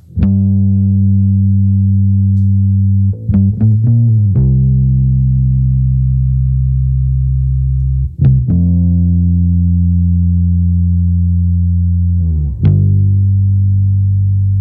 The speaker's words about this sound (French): Voici la chanson du jour qui commence par de la basse.